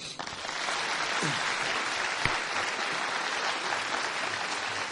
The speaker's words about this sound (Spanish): Tremendo, dése un aplauso.